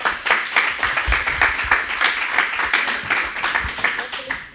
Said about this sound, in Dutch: En heeft ze notabene de Libris Literatuurprijs gewonnen. Dus geef haar een groot applaus.